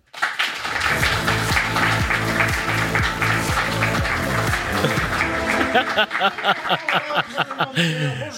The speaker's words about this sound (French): Un tonnerre d'applaudissements, s'il vous plaît, pour Monsieur Poulpe.